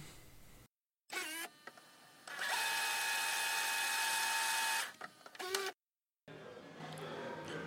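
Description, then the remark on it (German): A mechanical whirring sound like a tape fast-forwarding, rising into a steady high-pitched whine for a couple of seconds, then clicking and stopping, with brief motor bursts around it and no talking. “Alles klar, Vorspultaste. Bam.”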